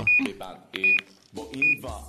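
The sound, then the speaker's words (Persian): Three short, even electronic beeps sound at regular intervals as someone tries to make a call and finds the telephone line cut off, while a voice talks faintly in the background. “تلفن چرا قطعه مگه دیروز نگفتی پرداختش کردی”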